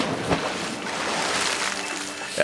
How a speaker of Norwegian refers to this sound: Jeg skjønner ikke det plasket. Av skumleste. Mageplask, kanskje. Ja, mageplask.